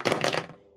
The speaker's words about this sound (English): sorry, that was my phone